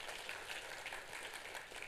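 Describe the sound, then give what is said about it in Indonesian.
A crowd claps steadily throughout for God, a dense, continuous wash of hand claps at an even level with no voices standing out. “Tepuk tangannya yang paling meriah buat Tuhan itu.”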